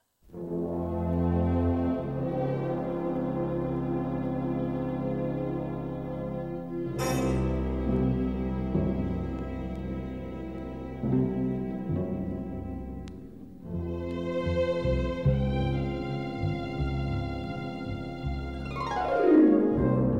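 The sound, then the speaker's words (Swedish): Sustained orchestral film music plays throughout, with rich low brass chords swelling, a bright accent midway, and a sweeping descending flourish near the end; no voices. “ett spår som heter …”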